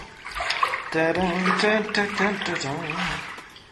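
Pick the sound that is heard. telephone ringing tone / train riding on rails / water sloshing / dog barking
water sloshing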